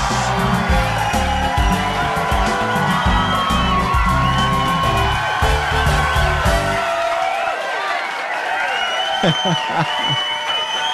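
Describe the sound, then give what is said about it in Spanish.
A man lets out his loud, drawn-out signature yell, the same each time, while a group cheers and whoops around him. The noisy crowd continues throughout, with overlapping shouts and excited voices. “¿Cómo es que él grita igual cada vez? Ese es su grito, ese es el grito suyo.”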